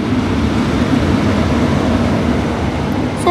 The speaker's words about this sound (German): jetzt der Zug nach Nauen weg.